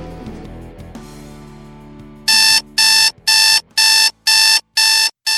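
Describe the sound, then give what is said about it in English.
An alarm clock rings loudly, sounding about seven evenly spaced, piercing electronic beeps after a brief, softer tonal lead-in. “Do you know what that sound is? That's your wake up call.”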